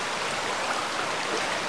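A steady, dense rush of falling water, like a waterfall, hisses evenly across the whole clip with no pauses or distinct drops, no voices present.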